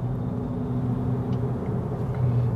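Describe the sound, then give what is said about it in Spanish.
Steady low rumble of a car cabin while driving in Orlando, a continuous engine and road drone with faint tonal hums, fairly loud and unchanging, with no voices. “Hoy estoy hablando desde el carro, sigo, sigo haciéndolo por temas de tiempo.”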